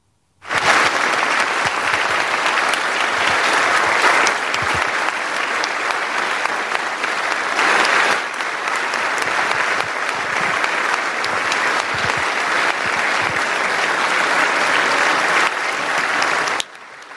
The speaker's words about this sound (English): If one thing was certain, ahead of the Ukrainian president's do or die address to these U.S. lawmakers, this was it. A standing ovation befitting a leader who has redefined what it means to be a freedom fighter.